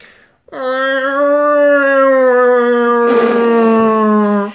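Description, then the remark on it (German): A person imitates a cat's insistent begging whine, the noise the cat makes when the cupboard is opened: one long, loud, nasal wail held steady for about four seconds, turning slightly breathy toward the end. “Und dann stellt sie sich immer vor ein und macht ungefähr das.”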